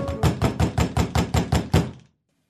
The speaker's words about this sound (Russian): Ой, а почему такой стук? Ведь звонок есть А посмотри-ка в глазок Ужас! Там за дверью пират!